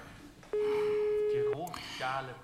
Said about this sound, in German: Jetzt komm, nimm das hure Telefon.